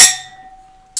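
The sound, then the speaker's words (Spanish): Glasses clink together in a toast, a bright chime whose clear ringing tone lingers and slowly fades, followed by another quick clink at the very end. No one speaks. “Salud.”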